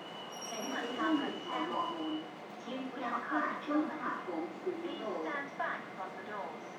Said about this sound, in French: Je suis arrivée ensuite à l'aéroport de, Hong Kong. Là, j'ai pris euh, le métro qui est assez euh, futuriste.